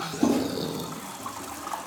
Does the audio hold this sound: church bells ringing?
no